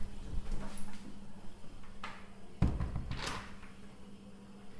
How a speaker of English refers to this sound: She hears the library's sliding doors open and runs back to the toilet before anyone comes to ask for help.